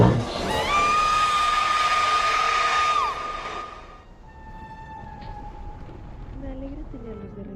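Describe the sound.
A long, piercing banshee-like wail for Halloween night holds a steady high pitch for about three seconds over a rushing roar, then fades into fainter, wavering cries and murmuring voices.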